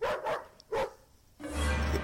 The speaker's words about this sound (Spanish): Sin motivo aparente, mi perro comenzó a ladrar de manera desesperada mientras rascaba la puerta de la entrada. Algo le pasa al perro.